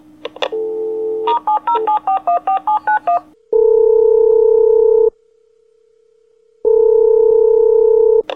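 A rapid sequence of about ten electronic keypad tones as a number is dialed, followed by two long steady ringback tones separated by a pause, clear and close with no talking.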